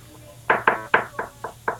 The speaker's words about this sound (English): knock on the door. You you barely get through your third knock before the door swings open